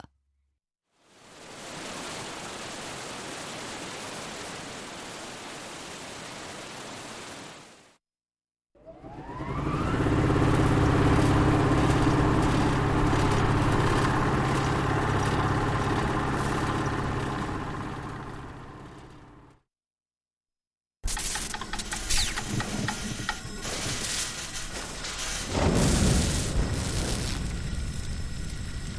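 Loud bursts of industrial roar from a power station, the metallic sound of turbines, vibrating thick cables and burning electrical transformers, come in three blocks split by brief silences, with a steady low drone and a harsher, ringing whine in the last block.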